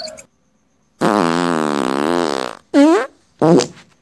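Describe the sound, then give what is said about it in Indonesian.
A loud, rumbling fart from the speaker's grandmother in the morning: one long buzzing blast of over a second, followed by two shorter sputtering bursts with wobbling pitch, clear with no other sounds. “Suara kentut bergemuruh milik nenekku itu mengagetkanku.”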